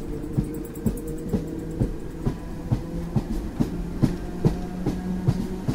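A train bound for the East, carrying Christie, clatters steadily along the rails, its wheels striking joints in a regular rhythmic clack over a constant low rumble, heard from inside or beside the carriage with no voices.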